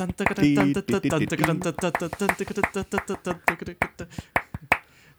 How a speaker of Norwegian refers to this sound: Men det var en bananflue her nede som driver og flyr mellom meg og PC-skjermen hele tida. Så sorry. Det, det, er ikke musikken jeg klapper til.